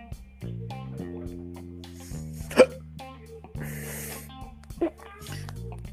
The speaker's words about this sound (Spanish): Perdón, amigo, me dio hipo, hice un, cóctel ahí medio raro.